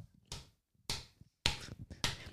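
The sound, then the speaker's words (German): Someone taps out a drum-like beat by hand, imitating a market drummer in Münzenberg: four loud knocks at an even, unhurried pace, each with a short thud, plus a couple of softer taps between them. No one speaks. “Ich würde ja gerne mal wissen, was der da rumtrommelt.”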